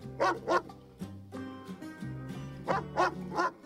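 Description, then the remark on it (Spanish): A dog barks sharply during a fight with a cat, in two bursts, a quick pair followed after a pause by three more, with a steady musical drone holding underneath. “Se midieron las ganas con vista feroz unos segundos hasta que el perro tomó la iniciativa, comenzando un rápido intercambio de mordiscos y zarpazos, esparciendo los desperdicios con los quiebros de sus cuerpos.”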